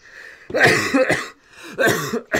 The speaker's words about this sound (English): I'm gonna cough while y'all talk.